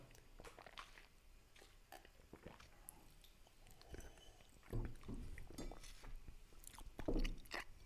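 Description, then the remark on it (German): Quiet mouth sounds of someone taking a first sip of cola from a glass during a blind taste test comparing Pepsi with another cola, with soft slurps and swallows, a few faint glassy clinks, and fizzy crackle in between. “Ja, du nimmst jetzt mal den ersten Schluck.”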